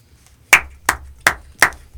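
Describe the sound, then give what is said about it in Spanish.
Five slow, evenly spaced, sharp hand claps from a single person, starting after a brief quiet moment with no talking, given after a poem reading. “¿Por qué aplaudí para ahí?”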